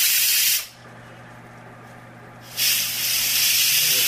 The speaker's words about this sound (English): slowly releasing pressure. You hear the steam coming out.